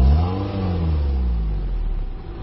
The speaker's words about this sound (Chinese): 我们呢找到了一部二点零排量的车，接下来我们到汽车的尾部去测一下尾气的污染有多严重。 我们把检测仪放在排气管口，踩一脚油门。